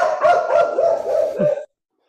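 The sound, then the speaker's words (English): Several dogs bark and yip together in a dense, overlapping chorus, loud, for under two seconds before it cuts off abruptly into silence. “All the dogs.”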